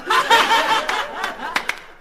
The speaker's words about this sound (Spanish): Ay, cómo aplauden. Parece que fuera mentira. Parece que fueran contratados.